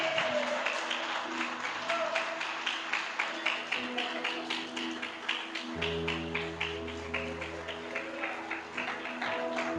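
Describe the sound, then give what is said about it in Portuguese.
A church audience claps for Jesus in a steady rhythm, sharp bursts repeating about twice a second over sustained musical tones, with a deep bass hum joining partway through. “Quem acredita, aplauda Jesus.”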